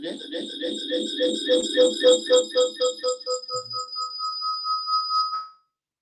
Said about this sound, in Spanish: Sí, solo que tenemos ese, ese, ese típico eco que, va y viene en, ambos, en ambos dispositivos.